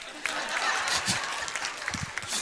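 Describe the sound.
Audience applause during a church sermon, a dense, steady patter of many hands clapping for the whole stretch, with faint crowd murmurs and a few low voices mixed underneath.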